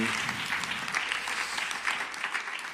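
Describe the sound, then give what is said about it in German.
An audience claps steadily for a worship team, a dense, sustained wash of many hands at fairly even loudness, with no voices standing out. “Lass unserem Worship-Team einen Applaus geben.”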